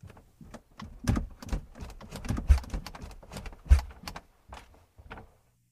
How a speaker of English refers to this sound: That night, I was awoken by a noise coming from the living room around 2 o'clock in the morning. It sounded like footsteps, but I wasn't certain at first.